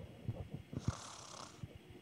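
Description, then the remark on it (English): A person imitates snoring: a low, rattling throat vibration with a breathy, hissing draw of air in the middle, fairly quiet and lasting about two seconds, with no talking. “Sleeping. I mean, okay. S- snore.”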